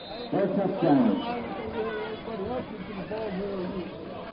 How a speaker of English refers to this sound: and you can hear the crowd. It was good, so Corunna leads it here early, seven to nothing over Flint Power.